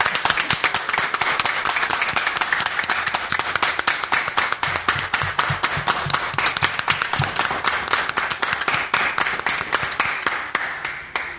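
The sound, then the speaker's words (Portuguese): An audience claps steadily, the dense patter of many hands keeping an even, fairly loud level for about eleven seconds without any break or clear talking. “Então, milhões de palmas para todos.”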